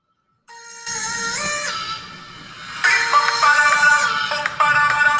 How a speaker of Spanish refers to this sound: Vamos a poder escuchar más o menos su canción.